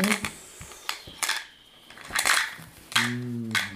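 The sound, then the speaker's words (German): Dice rattle and clatter across a hard tabletop in a series of sharp, irregular clicks, followed by a brief murmur of a voice at the end. “Okay, ähm, würfel aber einmal bitte auf.”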